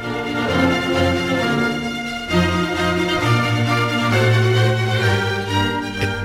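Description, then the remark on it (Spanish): A sustained classical orchestral passage by Ramón Garay, music composed at Jaén Cathedral in 1790, with rich string harmonies and a steady bass line, played loudly and continuously throughout with no voices. “Esto es lo que se componía en la Catedral de Jaén a finales de, justamente en el año 1790.”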